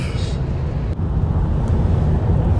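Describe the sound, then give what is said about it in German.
An emergency service vehicle driving along a road on a blue-light run to a broken-down vehicle in the Rannersdorf tunnel: a steady, loud low rumble of engine and tyre noise, continuous for the whole moment with no voices. “Wir haben das Schrauben am Verkehrszeichen unterbrochen und sind jetzt im Blaulichteinsatz unterwegs zum Tunnel Rannersdorf.”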